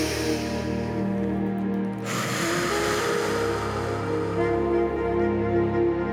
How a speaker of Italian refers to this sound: Continuiamo a respirare, inspiro naso, butto fuori bocca. Ancora due cicli di respirazione in questa posizione.